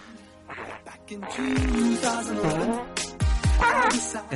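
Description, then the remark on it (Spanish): Low, blubbery fart sound effects burst out twice, loud, over a busy backdrop of voices and tonal, music-like sounds. “Oye, ¿por qué ponen los pedos otra vez, tío?”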